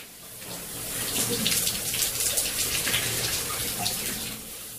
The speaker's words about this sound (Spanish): Un instante antes de que llegara a la puerta del baño, Cesó el ruido del agua.